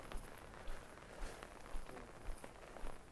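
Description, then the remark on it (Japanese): A soft, steady hiss of rain, not yet snow, falling outdoors on January 23 around 6:30 pm, with a regular series of muffled footsteps thudding underneath at a walking pace as someone heads out to buy food for dinner. No one speaks. “今日は1月23日時刻は18時半ぐらいですこの音からもわかるかもしれないですが今は雨が降っていますまだ雪ではないです”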